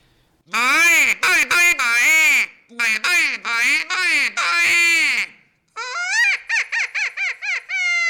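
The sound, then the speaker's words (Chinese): A suona reed and its short core piece, under about six to seven centimetres long together, played on their own without the horn tube, give loud, buzzy, nasal squawks with swooping, bending pitch. Choppy bursts almost like quacking speech come first, then a run of shorter, quicker notes. “啊，其实不是很大，不像我们一般这个唢呐的管这么长，然后它就是一个哨子加一个心子，嗯，然后如果说光就这两个，大概才不到六七公分左右，六七公分左右的东西， 对， 就可以发出让你意想不到的声音。”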